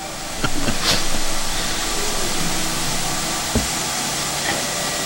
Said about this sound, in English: we're uh, hearing the train roll in right about now, and I think we're gonna have to yep, probably good.